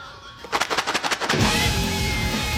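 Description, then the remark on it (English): A bag of Temptations cat treats is shaken in a quick burst of about eight rapid, crinkly rattles, fairly loud, then gives way to a steady rustling noise as many cats head for the door to get the treats. “Now you hear a shaking sound.”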